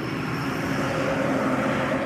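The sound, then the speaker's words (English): A truck passing by, heard as a steady, droning engine rumble with a low hum that holds an even loudness throughout, with no voices present. “Huh, I wonder if that's the same truck, bro. That's missed his fucking exit or some shit.”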